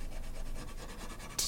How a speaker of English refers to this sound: He's rubbing the letters, numbers, and special characters of Letraset, or dry transfer lettering, onto their new home a large piece of paper